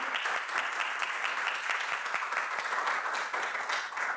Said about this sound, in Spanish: Vamos a darle un fuerte aplauso a la Santísima Virgen en su gran día.